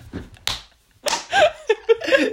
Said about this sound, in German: das ist nur Ohrfeige.